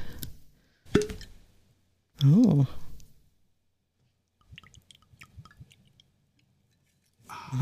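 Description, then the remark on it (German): A sharp plop, then a brief spoken exclamation, followed by a soft trickle of a gin and tonic being poured into a glass, with faint crackles and clicks of ice cubes. “du hast doch noch gar nichts getrunken, weil ich habe dir ja noch gar nichts eingeschenkt.”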